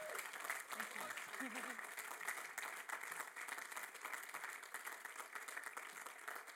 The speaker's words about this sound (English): So come on, put your hands together for her.